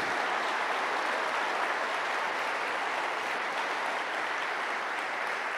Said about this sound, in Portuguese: Se você crê que esse problema não é definitivo, dá mais um aplauso bem forte ao Senhor, bem forte. Vai aplaudindo.